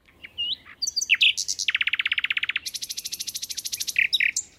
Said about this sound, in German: Wer diesen kleinen braunen Vogel im Wald hören möchte, muss sich die Nacht um die Ohren schlagen. Denn die Nachtigall, wie der Name schon andeutet, singt nur in der Nacht.